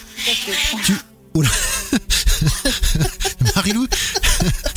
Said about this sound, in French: Donc le bruit que vous avez entendu, c'est un chat.